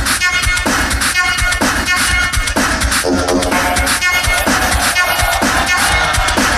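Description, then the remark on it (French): A loud, steady stream of beatboxed mouth percussion, with rapid rhythmic hits layered over buzzing voiced tones, imitating a full drum-and-music groove for several seconds without any spoken words. “Ça aussi, c'est un bruit de bouche.”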